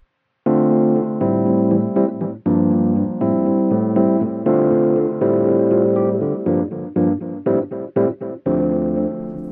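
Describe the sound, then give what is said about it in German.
Electric piano plays a steady sequence of chords, first clean and then with a gritty distortion switched on, the tone turning rougher and denser. No voices, just the instrument. The distortion is a single insert effect on the electric piano, an Arturia plugin called Distop App 21, switched off and then back on. “So, auf dem E-Piano haben wir jetzt einen einzigen Insert-Effekt.”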